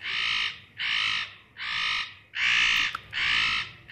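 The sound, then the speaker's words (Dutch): A spotted nutcracker gives a series of harsh, rasping calls, five drawn-out grating notes in a steady rhythm, loud with no other sounds. “Een echt fantasievol geluid produceert de notenkraker niet, hè?”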